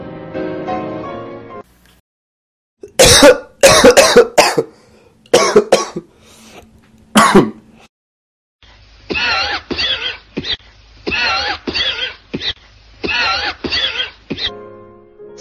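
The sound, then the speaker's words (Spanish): A smoker's harsh, phlegmy morning coughing fit on waking: a brief voiced sound, then bursts of hacking coughs, a pause, and a long series of rapid wheezy, rasping coughs, with no speech. “La mayoría de los fumadores saben bien lo que son esos accesos de tos que atacan al despertar por las mañanas.”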